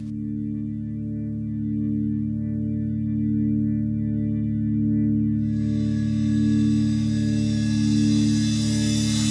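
A song from a singer's solo record begins with a steady, droning synth chord and layered sustained tones that slowly swell; partway through, bright shimmering textures join in. No vocals yet.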